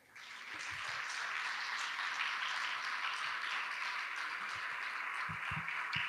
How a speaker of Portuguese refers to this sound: Amém, amém. Pode aplaudir o Senhor?